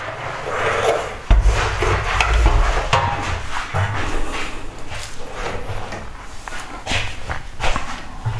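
A male cat scratches and digs in a litter box at night, a steady stream of gritty rasping and rustling with a few sharper scrapes and bumps, no voices.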